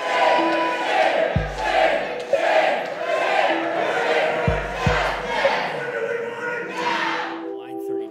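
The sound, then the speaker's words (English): A loud protest crowd at the Wisconsin state capitol chants in steady rhythmic bursts, many voices rising and falling together, with a few deep booming thumps breaking through the din. “After two days of protests at the Wisconsin state capitol.”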